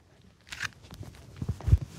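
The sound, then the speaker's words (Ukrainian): A ginger cat named Persyk runs toward the exit, its footsteps pattering across the floor in a quick, uneven run of soft thumps that grow louder toward the end, with no voices. “Персик біжить до виходу.”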